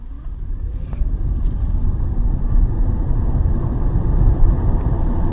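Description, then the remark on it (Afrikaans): An electric car pulls away from a standstill, heard with a window open: a low road-and-wind rumble that swells steadily as it gains speed toward 70, fairly loud, with no voices. “Met die venster oop, klink 'n wegtrek van stilstand af so.”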